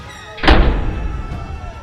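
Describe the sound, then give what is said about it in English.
The small door of a mountain bunker is pulled shut from inside with a single deep thud, its low boom lingering and slowly fading into a quiet room tone. “After the last of his followers were in, he pulled himself inside and closed the door.”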